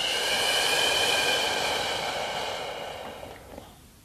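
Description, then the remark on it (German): A long, slow exhale during a guided group breathing meditation, a steady airy rush of breath that gradually softens and trails off over about four seconds, with no talking. “Und wieder aus.”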